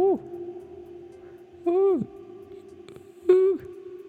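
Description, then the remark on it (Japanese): Three drawn-out sung vowel tones from a man, each falling in pitch at the end, drenched in a long mixer reverb effect with its reverb time adjusted so it echoes far; the ringing tail hangs on continuously between the notes. “バーブタイムかな結構これいじると遠くまで反響してますねデンシティ深さとかこの辺はねほんとわかんないあーあーどうなっちゃうんだ俺の音はああわからないうーやばい”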